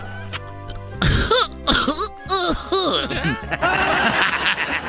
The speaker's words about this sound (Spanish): es … tosiendo, güey, pero marihuana así. ¡Ay! Pura índica.